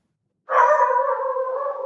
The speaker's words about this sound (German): Untermalt von meinem Hund. Schön. Genau. Der, der, hat, der hat perfekt gepasst.